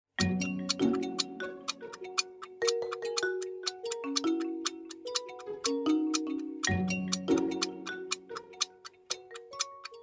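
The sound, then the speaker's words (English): A steady, rapid clock ticking runs throughout, loud, layered over a tense musical backing of sustained notes that shift in pitch, like a game-show countdown, timing a 10-second countdown for a quiz question. “10 seconds are on the clock.”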